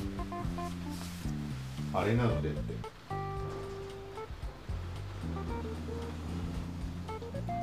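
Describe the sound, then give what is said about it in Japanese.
A steady hiss of falling rain runs continuously in the background while a person talks into the microphone the whole time, recording after changing location because rain started falling. “雨が降ってきてそう今場所を変えて録音してるからそのテストもかねて最近やっていたんだけど今声遠かったかもしれないけど”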